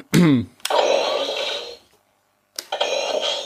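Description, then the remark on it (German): An electronic toy Neutrona Wand blaster powers up with a descending whine, then settles into a steady buzzing hum with a rattling vibration, cutting out briefly before humming again, fairly loud. “Ja, so, das klingt oh. schon besser oh geil, das ist mit diesem Summen auch wirklich.”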